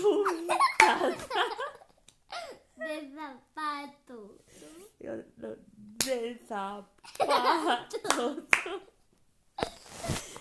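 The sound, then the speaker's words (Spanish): A hand-clapping game (palmas) with a child: sharp, scattered claps punctuate a sing-song chanted Spanish rhyme, with bursts of giggling and laughter between the lines. “¿Te ha gustado jugar a las palmas?”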